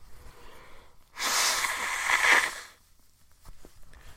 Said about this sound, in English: Ah blow my nose with the fucking plus lotion tissue. Let me tell you, nothing finer.